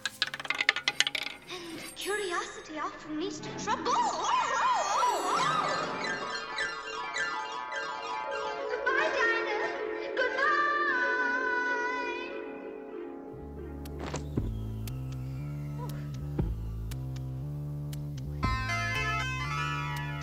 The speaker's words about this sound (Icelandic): Við heyrum rúletti hljóð og það þýðir að nú hefjum við tímaflagg dagsins.